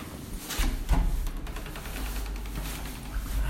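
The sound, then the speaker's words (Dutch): A cupboard door is pulled open with a short scraping slide and a soft knock, over a steady low rumble, with no talking. “Elke deur proberen. Deze is wel open. Oh, dit is een kast.”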